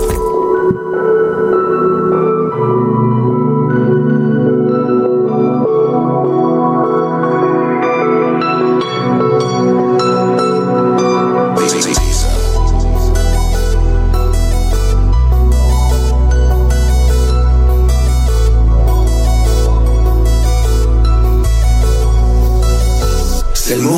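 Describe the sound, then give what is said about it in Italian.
An Italian rap song plays loudly, opening with sustained melodic synth chords before a heavy bass and punchy drum beat kick in halfway through and drive steadily to the end. “andiamo ad ascoltare …”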